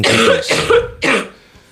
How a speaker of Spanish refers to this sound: ya estaba ahí la tos.